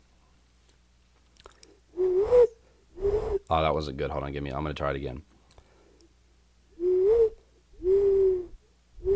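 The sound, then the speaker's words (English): A person imitates an owl with several low, breathy hoots, a couple at first and two more after a pause, spoken comments breaking up the attempts. The hoots are fairly loud. “When you hear that hoot, that owl is near you.”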